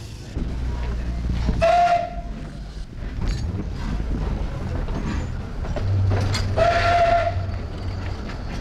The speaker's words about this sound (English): Train left 10.47, the other arrived 10.42. Well, there we are, two trains in and out, like clockwork there,